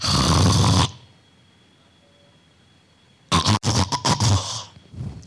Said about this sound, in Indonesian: Pernah lihat yang seperti itu? Tahu apa yang terjadi? Henti napas saat tidur kita sebut sebagai sleep apnea.